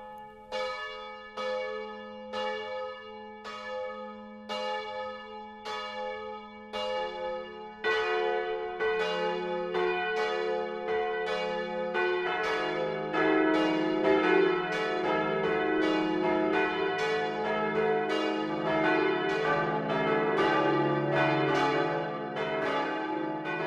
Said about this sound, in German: Es ist 12 Uhr. Das Mittagsläuten kommt heute aus Klingenberg am Main.